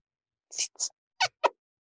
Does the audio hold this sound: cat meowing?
yes